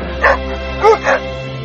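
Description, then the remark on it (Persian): A dog gives three short vocalizations, one near the start and two in quick succession later, each a yelping bark that slides into a whimpering whine over a low steady hum. “اسمش رونیه چی میگی پسر بلکی چی کارت کنم تو بهترین دوستی هستی که تا حالا داشتم خودت هم خوب میدونی”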